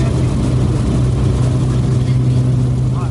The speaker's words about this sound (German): Wow. Zum allerersten Mal in meinem Leben durchgestartet. Das hier mitten im Okavango-Delta.